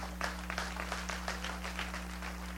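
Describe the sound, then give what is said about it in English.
Scattered, uneven clapping from a small audience, a few hands patting at loose intervals rather than full applause, fairly quiet over a steady low electrical hum, with no one speaking. “You don't have to clap, that don't offend me.”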